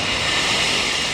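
A loud, steady mechanical roar from a glass recycling collection on the street, a continuous hiss-heavy rumble with no distinct crashes, and no one speaking.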